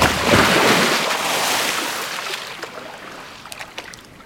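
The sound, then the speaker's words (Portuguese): Lake water sloshes and laps, a broad splashy wash that gradually softens, with a few small drips and splashes near the end. No voices are heard. “O mais absoluto nada. Só a água.”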